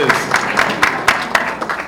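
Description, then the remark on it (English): An audience applauds news of a book manuscript being accepted for publication, a steady wash of many hands clapping with a few sharper, louder claps standing out at a fairly regular pace. It keeps up throughout, moderately loud. “It's okay, clap, yes.”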